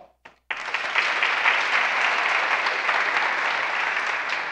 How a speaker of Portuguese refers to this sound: Hoje nós vamos ouvir o ex-endemoniado gadareno. Dá um aplauso.